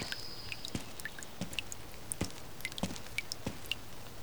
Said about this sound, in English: No, I think it's something else. A sort of dripping noise? I don't think it's the rain.